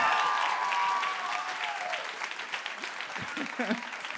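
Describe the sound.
Sustained audience applause for two young men, a dense steady patter of many hands clapping that gradually thins, with a faint tonal whistle early on and brief voices or cheers near the end.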